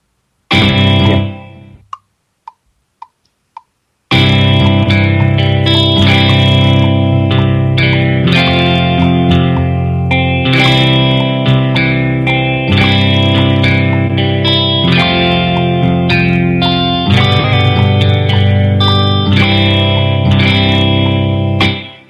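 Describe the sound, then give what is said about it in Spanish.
A distorted electric guitar plays loud, sustained chords with a bass guitar recorded over the earlier guitar track, the guitar dominating the mix; a few brief plucked notes come first, then the full band-like layer continues steadily. “Vale, pues, pero ¿se oyó el bajo separado de la guitarra? Se oye más la guitarra que el bajo.”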